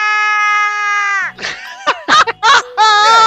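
A loud, high-pitched shouted yell used as the jingle for a segment called Rapidinho, held steadily for over a second, followed by a burst of choppy, strained vocal cries and a final sustained yell.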